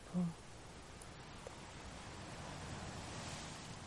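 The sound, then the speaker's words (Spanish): Soft, steady wash of sea surf rolling onto the shore, a continuous low rush, quiet and unbroken, with a faint wind-like hiss over it. “Y no puedes parar de sonreír, sintiendo la inmensidad del mar, el mar, la mar, como si fueran un padre y una madre que te cuidan y te acogen en su interior.”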